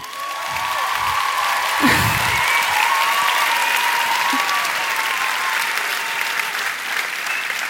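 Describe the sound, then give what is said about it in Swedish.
A crowd applauds a woman on her birthday, steadily for several seconds, a dense, even wash of clapping with a few brief whoops rising over it before it holds at a constant level. “Ska vi bara ge en applåd till henne?”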